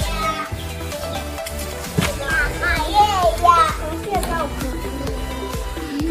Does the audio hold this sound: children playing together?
yes